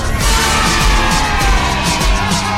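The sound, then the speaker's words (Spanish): A dense, steady roar of Atlas supporters chanting "pañaleros somos, pañaleros son" together at Estadio Jalisco, loud and unbroken, with low booming thumps, probably drum beats, landing at a regular pace underneath the voices. “Fue grabado con la porra de los rojinegros del Atlas en el Estadio Jalisco.”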